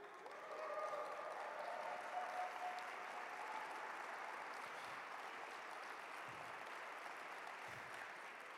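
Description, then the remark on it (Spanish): Sustained applause from an audience during a sermon, a dense steady wash of clapping that starts within the first second and holds at an even, fairly loud level throughout, with no voices standing out. “Vamos, si vas a aplaudir, aplaude bien.”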